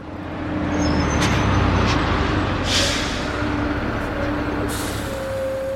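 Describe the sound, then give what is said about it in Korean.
The last bus of the day stops at a bus stop and idles with a low engine rumble, punctuated by sharp hissing bursts of air brakes releasing, and a faint tonal whine rising near the end, with no talking. “버스 정류장엔 오늘의 마지막 버스가 섰다.”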